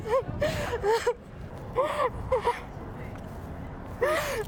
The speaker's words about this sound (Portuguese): … saiu chorando, ansioso por um abraço que não recebia há mais de três meses